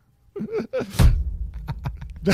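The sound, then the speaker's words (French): A door slams shut with a heavy, booming thud, leaving a low rumble that lingers afterward. Brief vocal sounds come just before it, and a few faint knocks and rustles follow. “Claque la porte.”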